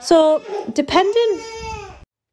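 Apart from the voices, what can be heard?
baby babbling and fussing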